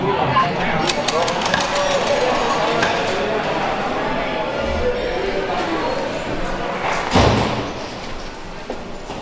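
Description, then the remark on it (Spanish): The street door of a residential building in Chueca, a former convent, opening and closing, with a few sharp clicks and rattles early on, a steady hum of background noise and indistinct voices, then one heavy, booming thud as it shuts. “¿Te abro la puerta?”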